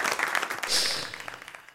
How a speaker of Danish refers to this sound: men den her klapsalve er for den næste nyhedsoplæser.